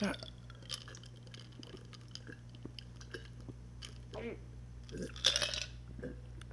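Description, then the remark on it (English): Someone chugs a cranberry spiked seltzer (Bon Vivre), a steady run of wet gulps and swallowing clicks with faint fizzing, ending in a louder, sputtering splash of liquid. “and Cheers. chug.”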